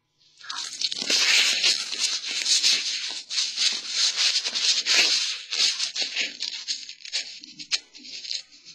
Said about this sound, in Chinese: 我呢会在你耳边发出一些摩擦的声音，当听不清楚的时候，要立刻的告诉我。